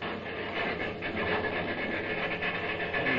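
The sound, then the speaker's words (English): Train wheels clatter steadily over the rails, a continuous rumbling rattle with faint rhythmic clacks and a hissy wash on top, fairly loud with no voices. “Say, don't them wheels sound funny? They sure do.”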